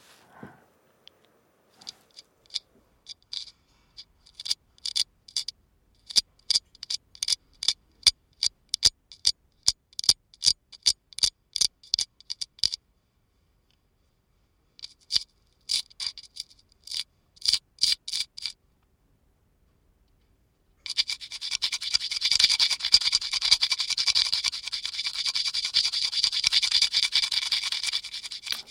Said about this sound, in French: Là, c'est le travail des staffeurs. Donc, on est à l'intérieur de Notre-Dame. ça veut dire euh, Le staffer, c'est celui qui restaure les frises euh, dans Notre-Dame.